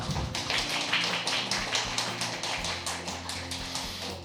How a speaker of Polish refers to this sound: Wojciech Bonowicz, proszę o brawa